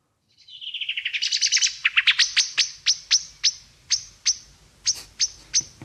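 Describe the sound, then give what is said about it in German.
A common blackbird's scolding alarm call, loud: a rapid chattering rattle that slows into a series of sharp, evenly spaced metallic chinks, with no other sounds around it. “Der der Meckerruf, mhm. nenne ich es jetzt mal.”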